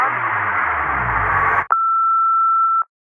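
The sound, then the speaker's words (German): A dense, noisy wash of sound cuts off abruptly, followed by a single steady phone-system beep lasting just over a second, clear, then silence. “Das muss die Telefonanlage gewesen”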